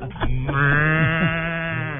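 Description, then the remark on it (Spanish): A single long, drawn-out cow moo, loud, holding a steady pitch for about two seconds before tapering off slightly at the end. “¿Quieren oír la vaquita?”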